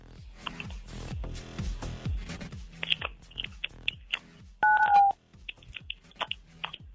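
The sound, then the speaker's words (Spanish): Telephone keypad tones beep in short bursts as a caller from Tucitlán presses 9, 7, 7 during a phone-in prize game on radio station La Mejor 97.7 FM: a few steady two-pitch tones pressed one after another, over a busy background of clicks and crunchy noises. “97.7, Presiona en tu entonces. teléfono 977.”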